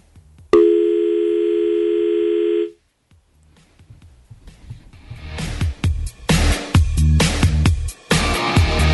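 signal or alarm, dial tone

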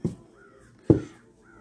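bird, crow cawing

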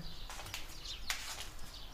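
bird, birds chirping outside

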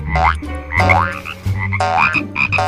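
animal, frogs croaking

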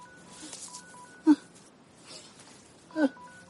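signal or alarm, mobile phone ringing

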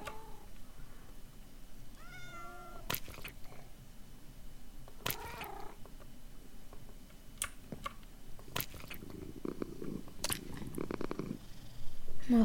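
animal, cats purring

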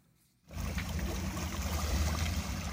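nature, water flowing

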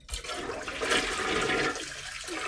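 household object, toilet flushing

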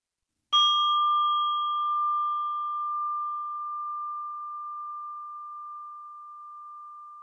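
signal or alarm, meditation bell ringing

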